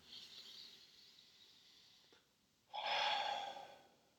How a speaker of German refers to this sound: Wir gehen direkt rüber, also wir atmen erstmal, komm,